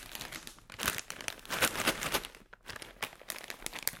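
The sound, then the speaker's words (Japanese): A snack bag is torn open and crinkled, a dense run of bright, irregular plastic rustles and crackles that rise and fall in bursts for several seconds, with no talking. “開けますこの段階でわかる方がいたらすごいですよ結構たくさん入ってます”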